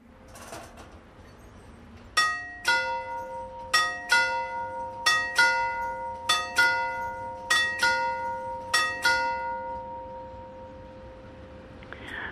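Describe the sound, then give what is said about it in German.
An old railway station bell, from a collection of station bells set up in a garden in Turgi, rings in a series of paired metallic strokes, each clear ringing tone decaying before the next, repeating steadily for several seconds before fading away, with no voices. “Bevor wir jetzt die Geschichten unserer Hörerinnen und Hörer auf die Schiene setzen, kriegt jede ein Geläut aus der Eisenbahnvergangenheit vorneweg.”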